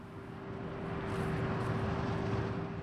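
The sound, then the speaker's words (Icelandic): A steady motorized engine drone with a constant tonal hum from a tractor or ride-on mower driving around the area cutting the grass beside a footpath, swelling slightly louder as it moves around. No one speaks. “en hljóðið sem tók á mótið mér var aðeins velræðna, það var traktor eða einhver svona sláttubíl sem var að rúnda um svæðið til að slá grassið við gungustíin”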